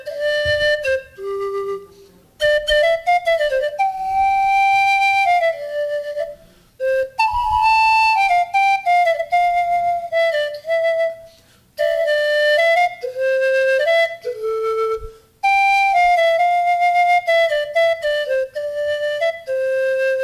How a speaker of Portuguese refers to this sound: Essa é a flauta bipan. Bipan.